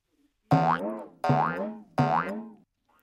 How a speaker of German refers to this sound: So klingt der, okay? Dieser rote Topfdeckel, der kann aber auch nur einmal mit diesem Boing klingen, ja?